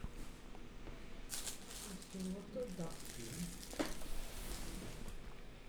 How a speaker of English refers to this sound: Oh, the the filter is really working hard. You can hear the water going through the filter.